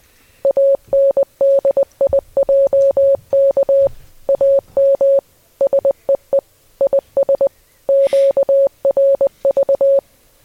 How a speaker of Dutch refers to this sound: En eh, hier komt die. de vraag is dus wat wij laten horen in Morsen.